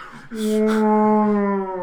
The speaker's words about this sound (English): anyway, uh, yeah, so it's just the sound of like whales. like whale noise?